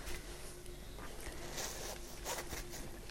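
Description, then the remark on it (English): A knife slices through a cake with a crunchy lime sugar-icing topping, giving a dry, rasping scrape in short repeated strokes, fairly quiet, with no one talking. “There it is, slicing beautifully, lovely and light golden inside with the gorgeous crunchy lime topping.”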